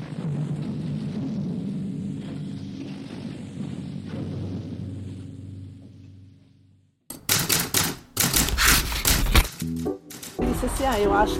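A low, steady hum drones for several seconds, then gives way to loud typewriter typing: rapid, irregular clacking keystrokes in dense bursts that continue to the end.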